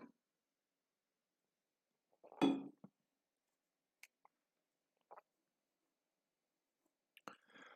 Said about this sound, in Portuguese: Enquanto isso, eu tomo água, que eu, vocês veem que eu tomo água demais.